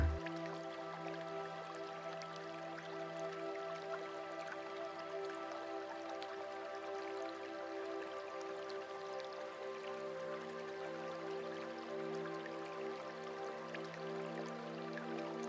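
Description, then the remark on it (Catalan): Water drips steadily at an irregular pace, small droplets plinking over a sustained, humming tonal drone that holds evenly throughout. “la proximitat, el tacte i el so de l'aigua.”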